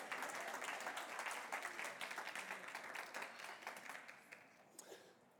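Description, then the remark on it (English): A church audience breaks into sustained applause in praise of God, many hands clapping at once in a dense, steady wash that gradually thins and fades toward the end. “Listen, you can give God praise for that.”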